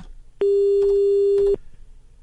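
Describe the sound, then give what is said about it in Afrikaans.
A telephone busy tone after a dropped phone call sounds once as a loud, steady electronic hum lasting about a second, then cuts off, leaving faint background noise with no talking. “Charles, jy's daar ek weet nie Charles is meer met ons nie.”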